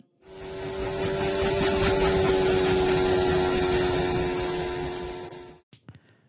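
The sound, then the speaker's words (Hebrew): Lewis Hamilton's Mercedes Formula 1 car, bouncing along the straight at Bahrain during pre-season testing, drones loudly and steadily for about five seconds with a rough, juddering edge, then cuts off abruptly, leaving a few faint clicks. “טוב, אז uh, למי שתוהה כרגע מה שמענו, זה בעצם היה המרצדס של לואיס המילטון, uh, מקפצת לה ככה בישרות של בחריין, במסגרת המבחני קדם העונה לדעתי, אבל זה עמית יודע כי עמית הוציא את הסאונד.”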